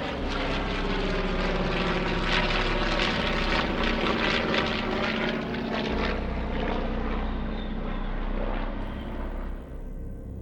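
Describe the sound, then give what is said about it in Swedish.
Japanese propeller warplane engines roar loudly and continuously, a dense, harsh drone with rising whine as 182 more aircraft take off in quick succession on 7 December 1941, fading slightly at the end. No voices. “med skrikande motorer lyfter i tät följd ytterligare 182 flygplan som formerar sig och sätter kurs mot anfallsmålet som nu är mindre än två timmar bort.”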